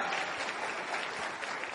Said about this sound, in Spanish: ¿Quiénes están acá como invitados? Por favor, levanten su mano para reconocerlos. Bienvenidos, un aplauso para ustedes.